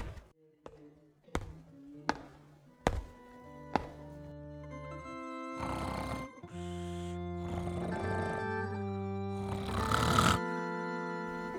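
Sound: alarm clock ringing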